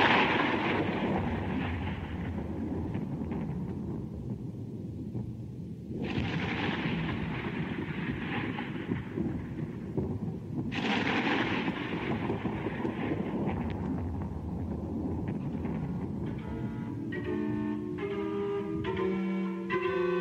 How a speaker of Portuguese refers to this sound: Era exatamente com esse som de trovão que começava o programa ACR Atelier de Création Radiophonique da Rádio France Culture.